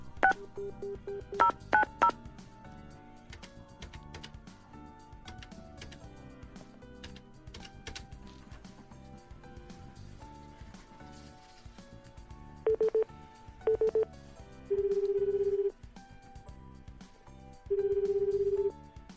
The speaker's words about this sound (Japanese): 元気にしてるでしょうか、電話をしてみましょう。